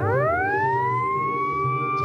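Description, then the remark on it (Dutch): A warning siren for a clear-area procedure before a Launcher rocket engine test winds up from a low pitch and holds a steady, loud wail, with a low rumbling hum underneath throughout. “Clear area procedure. En dat klinkt zo. Uh, siren, 3, 2, 1.”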